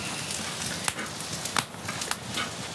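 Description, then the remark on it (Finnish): Steady sizzling of thinly sliced carrots frying in oil in a hot pan over a campfire, a constant hiss broken by a few sharp pops and crackles, with no one talking. “Vähän öljyä sinne vielä sekaan, niin muhii tuossa kuumalla pannulla tuossa nuotion”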